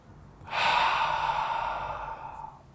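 One long, slow, airy breath out, lasting about two seconds before tapering off into quiet, with no talking around it; a person breathing to relieve stress.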